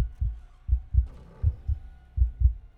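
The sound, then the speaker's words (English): A low, thumping heartbeat repeats in steady paired beats, lub-dub, about three pairs across a few seconds, deep and muffled with a faint hum underneath and no voices. “The victim's blood was awash in his brain, as also the blood and beating heartbeats and the police officers called to him as well, but he ignored it, focusing on the victim alone.”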